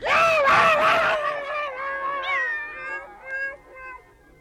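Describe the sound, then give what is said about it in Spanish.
A cat lets out a long, loud yowl as it flees, its wailing pitch bending and wavering before trailing off into fainter cries. No one speaks. “Los perros y gatos saldrán huyendo”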